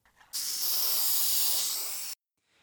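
A single steady burst from a spray paint can hisses loudly for almost two seconds, then cuts off abruptly into near silence.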